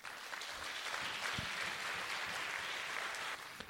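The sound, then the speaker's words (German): A crowd claps steadily for the School Sisters of Notre Dame, a dense wash of many hands applauding at an even volume before easing off slightly near the end. “Vielleicht gebt ihr den Schwestern mal einen großen Applaus.”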